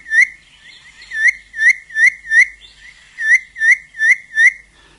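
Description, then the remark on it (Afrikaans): A Cape batis, a small bird, whistles its four-note call: clear, piping notes in a steady rhythm, grouped in fours after a single opening note. The call is loud, with no voices. “Hier is nou 'n viernoot.”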